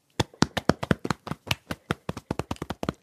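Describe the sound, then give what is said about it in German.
Quick, dull thumps of fists drumming on a chest, around eighteen hits in about three seconds in a fast, slightly uneven rhythm, fairly loud, with no talking. “Stell dich hin Balle deine Hände zu kleinen Fäusten und trommel mal auf deiner Brust.”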